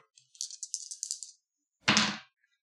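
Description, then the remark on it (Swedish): Three dice rattle briskly in a cup or hand for about a second, then clatter loudly onto a hard surface in one burst before settling into silence, rolled for a willpower check in a game. “Precis, och då slår du lika många tärningar och som tre ditt, ditt i viljestyrka, så Precis.”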